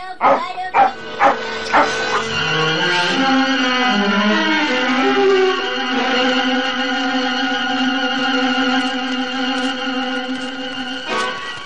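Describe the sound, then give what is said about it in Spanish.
A dog held on a rope, leading the way through the mountains, lets out several quick, sharp barks, then the sound stretches into a long, wavering, whining howl that carries on steadily for several seconds. “El perro iba directo, sostenido con un mecate por su reino.”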